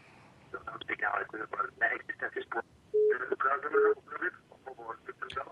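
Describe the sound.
A telephone ringing for an incoming call, two short steady electronic tones sounding a moment apart, partly under continuous narrow-band talk that sounds like it's coming over a phone line.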